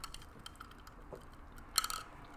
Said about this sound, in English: I'm just drinking out of a straw and in my big old wine glass. You can hear that. A little ASMR action. You hear those ice cubes? A little more ASMR.